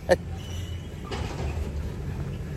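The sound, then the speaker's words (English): A garbage truck rumbles steadily along a street on a hot June morning in Texas, its low engine drone filling the background, with a brief sharp clank near the start and a hissy burst partway through. “Look at what I'm dealing with today garbage trucks, lady, another guy walking.”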